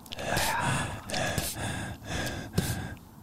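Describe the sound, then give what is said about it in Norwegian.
A voice imitates heavy breathing, with loud, rhythmic in-and-out breaths repeating about four times in a steady, exaggerated pattern, with no words spoken. “Det er pusten min i nakken din.”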